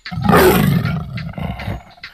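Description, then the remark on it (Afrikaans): A very large leopard's roar: one loud, rough, rumbling burst that swells quickly, then trails off into a raspy growl over about two seconds, with no talking. “Op 'n dag is sy juis op pad na die heuwels toe toe daar skielik 'n uitslike groot luiperd voor haar staan.”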